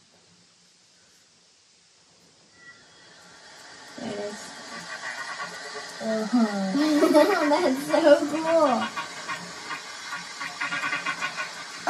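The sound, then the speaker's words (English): A single humpback whale song, a 6 minute 43 second recording played through Alexa's Ocean Soundscape, in long, sweeping moans and rising, wavering tones over a hissy background, growing louder midway. A person speaks briefly over the start. “Here is a 6 minute 43 seconds recording of a single humpback whale song.”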